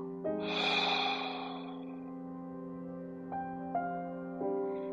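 A soft, breathy exhale through the mouth with an open "ha" quality during a guided breathing exercise, after a deep breath in through the nose, lasting about a second, over a steady sustained tone with a few faint chime-like accents following.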